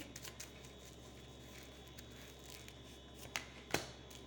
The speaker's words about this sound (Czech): Uh, co se týče partnerských vztahů, já ještě hodím další karty.